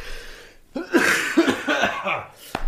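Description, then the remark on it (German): A loud fit of coughing: several harsh coughs in quick succession, each a short burst with a rough, breathy tail, ending with a sharp final cough. “ich muss schon wieder husten.”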